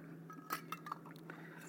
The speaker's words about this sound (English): put these lids on here before I spill all this.